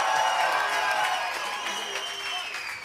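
A crowd cheers and applauds loudly and continuously, with dense clapping and excited shouts blending into a sustained roar from start to finish.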